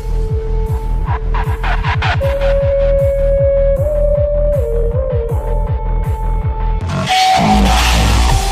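Loud, heavily distorted electronic sound from nonlinear changes to a waveform's amplitude, such as hard clipping: a gritty, buzzing drone over a rapidly pulsing low bass throb, with sustained tones shifting pitch and a harsher, noisier crunch near the end.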